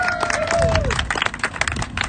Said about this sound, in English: really you should be really what you're going to be clapping for is the guy you're all here to meet